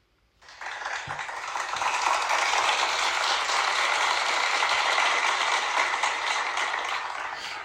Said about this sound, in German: Aber es sind ganz wichtige Dienste und es sind lebendige Bausteine für die Kirche, für unsere Bonifatiusgemeinde. Ein Haus voll Glorie schaut hier und heute und dafür dürfen wir auch mal klatschen.